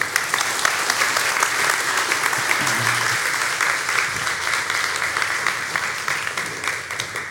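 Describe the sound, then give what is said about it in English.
A church service audience applauds a speaker steadily, a dense wash of many hands clapping at once, sustained and fairly loud for several seconds, with no one speaking over it. “Will you give it up for Karen?”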